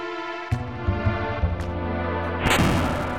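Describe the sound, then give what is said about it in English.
A wooden barricade blocking the way in a cave is smashed as a character crashes into it: a few heavy thudding impacts, then a loud final crash with a crackling burst of splintering as it breaks apart, all over a steady low droning hum. “He crashes into the barricade and it breaks apart.”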